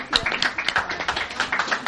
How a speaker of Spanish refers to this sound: Un aplauso, por favor, para las chicas de oro.